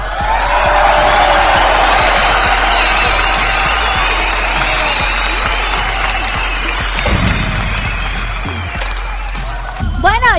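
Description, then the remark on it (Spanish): A crowd applauds and cheers continuously on the program Público Conocedor for the mothers listening, ahead of Mother's Day: a loud, dense wash of clapping with shouts and whoops mixed in, holding steady for about ten seconds with voices rising over it near the end. “Aquí en Público Conocedor, fuerte aplauso para cada una de las mamitas que hoy nos está escuchando, que ya se conectó.”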